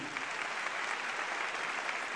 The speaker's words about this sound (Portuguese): Quero dizer que vocês fizeram a opção certa, por Jesus e por essa igreja. Uma igreja maravilhosa e vocês estão de parabéns. Vamos dar uma salva de palmas para esse pessoal aqui.